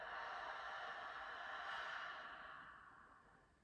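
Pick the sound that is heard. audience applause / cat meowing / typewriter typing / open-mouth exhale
open-mouth exhale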